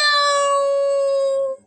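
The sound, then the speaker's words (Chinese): A single long, high-pitched yowl from Wilbur the cat, crying in fright after jumping onto a beach umbrella as sea water rises up the beach. It holds one steady, strained tone for about a second and a half, loud throughout, before cutting off abruptly. “威尔伯吓哭了。”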